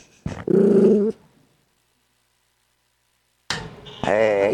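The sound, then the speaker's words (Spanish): A nervous dog growls in a low, harmonic rumble for about a second, then after a silent pause lets out strained, wavering whimpering whines, fairly loud, amid many people, many other dogs and cameras. “Y la verdad es que hay mucha gente, hay muchos perros, se pone nervioso.”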